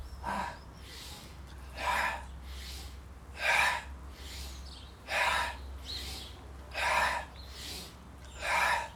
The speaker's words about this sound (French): se crochet des mains et on souffle en se tournant vers la droite.